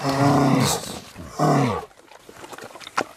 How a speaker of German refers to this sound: Ein Bär? Ein Bär, der schmatzt? Ja, ist richtig. Nein. Das ist ein Grizzlybär.